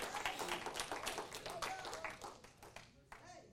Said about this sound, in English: Somebody clap your hands and say, Thank you, Jesus. Hallelujah.